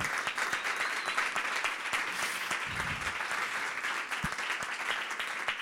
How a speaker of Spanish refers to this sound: por favor, un aplauso.